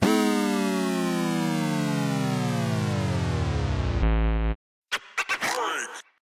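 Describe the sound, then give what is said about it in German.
An electronic sound effect for being startled: a loud tone with many harmonics sweeps slowly downward, then drops abruptly into a short low buzz, followed after a brief gap by a burst of jittery, chirping synthetic sounds. “Das ist, wenn man erschrocken wird.”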